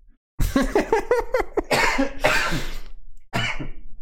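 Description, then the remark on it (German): A loud sneeze: a few quick voiced gasps build up, then a harsh noisy burst, followed after a brief pause by a second, shorter explosive outburst. “Ich würde fast so weit gehen, dass ich niesen muss.”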